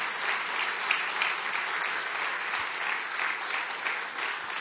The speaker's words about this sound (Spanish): Y y justo están cumpliendo 24 años de matrimonio, 24, 24 años de matrimonio. Un fuerte aplauso por ese pareja.